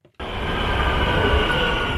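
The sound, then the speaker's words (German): An S-Bahn commuter train roars loudly and steadily through the City Tunnel in Leipzig after a brief quiet moment, a dense rumble with faint high-pitched wheel whine running through it, no voices. “Noch fahren die S-Bahnen durch den Leipziger Citytunnel.”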